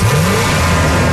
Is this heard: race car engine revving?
yes